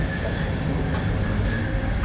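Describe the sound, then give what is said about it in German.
Loud, steady rumbling roar of a moving passenger train heard in the gangway between the doors of two carriages, with hissing bursts and clatter recurring roughly every half second to second. “Das also ist ich immer sehr interessant, lautes zwischen den Türen, zwischen den Wagen.”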